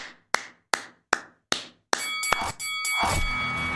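A ping-like sound effect marking a point scored in a game: six sharp metallic strikes in quick, steady succession, then a dense burst of bright, sustained ringing tones. Loud, with no voices.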